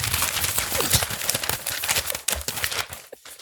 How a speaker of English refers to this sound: I gave myself six paper cuts just now. How is it that there's one thing in the mailbag and it makes that much noise?